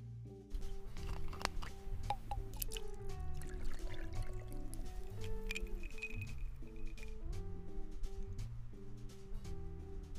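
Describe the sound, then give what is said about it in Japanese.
Shigure awamori, a 30-degree spirit from a Shuri distillery, and water are poured into a glass to make a mizuwari: a steady trickling splash with soft drips and patters. Mellow background music plays underneath and nobody speaks. “お待たせしました泡盛しぐれ水割りです”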